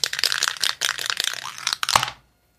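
A die clatters and tumbles across a tabletop during a game in a quick run of bright rattling clicks for about two seconds, then stops abruptly into silence, landing on six. No one speaks.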